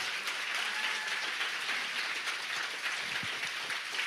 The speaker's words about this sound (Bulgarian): О, ръкопляскането ви!